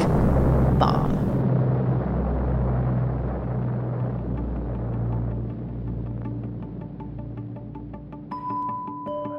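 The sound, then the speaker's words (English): An atomic bomb explosion in the desert near Las Vegas: a sharp blast near the start gives way to a deep, sustained explosion rumble that rolls on loudly for several seconds, with faint tonal notes creeping in toward the end. “I'm talking about an explosion of an atomic”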